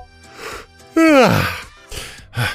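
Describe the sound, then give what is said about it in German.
A single human yawn: a breathy intake swelling into a loud, voiced moan that slides downward in pitch, then trails off into soft breathing and faint mouth sounds. “Allein schon vom Gähnen zu sprechen sorgt dafür, dass ich gähnen muss.”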